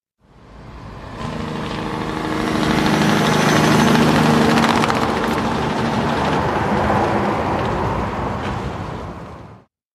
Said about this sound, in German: der war beschrieben als Truck mit irgendwelchen Abspanngurten